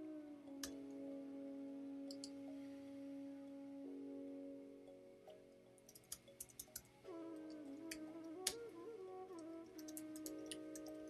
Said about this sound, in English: Okay, I'm typing here, sorry.